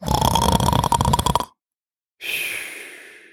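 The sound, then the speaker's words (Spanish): A voice imitates a loud, rattling snore for about a second and a half, then after a short pause lets out a long, airy breath that fades away. No one speaks. “Fingió unos sonoros ronquidos y se puso a esperar.”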